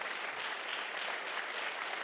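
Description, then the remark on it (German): A crowd applauds for the Lord, a dense wash of many hands clapping at once that holds an even, fairly soft level throughout, with no voices rising above it. “Klatscht mal für den Herrn.”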